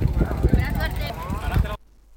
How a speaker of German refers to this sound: Ja, ihr habt es gehört, es ist windig